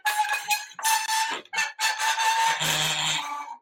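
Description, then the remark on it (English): A self-built homemade instrument of springs and nails, unplugged and played with a bow, produces a loud run of screechy, squawking tones in several uneven bursts, with a lower buzzing note near the end and no talking. “it's got like springs and like nails and shit like that. You can bow them.”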